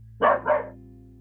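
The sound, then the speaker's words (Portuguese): A female dog gives two quick barks in close succession, loud, over a steady low background hum, then goes quiet. “O cachorro está comemorando essas histórias boas.”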